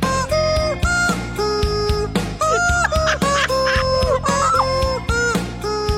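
A rock tune played entirely with squawking chicken-like clucks as the voice, loud and continuous, the pitched squawks following the melody over a steady driving rhythm with no talking.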